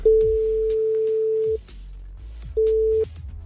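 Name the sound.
telephone ringing tone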